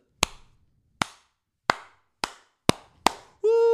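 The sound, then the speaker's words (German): Six loud, sharp hand claps ring out one at a time, spaced slowly and then quickening, imitating the rhythmic clapping of the crowd at a Jets game when a player falls, encouraging him to get back up, before a brief sustained tone cuts in at the end. “Äh, von den Jets, dann äh, klatschen alle so.”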